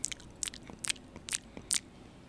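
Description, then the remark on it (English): A person imitates the Blooper squid from Mario with their mouth: five wet, crisp pops evenly spaced about half a second apart, fairly loud, with no talking. “That's the blooper noise.”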